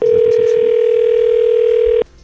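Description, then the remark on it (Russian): A single steady telephone ringback tone, heard while a call to the Belarusian ambassador in Slovakia is being dialed, sounds loud and clear for about two seconds before cutting off abruptly, with faint background murmur at the start. “Жень, набери, пожалуйста, да? Там есть, есть гудки”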